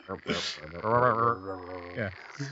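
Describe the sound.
A person vocally imitates a frog croak: a moderately loud, drawn-out warbling call with strong harmonics, lasting a couple of seconds, with no spoken words.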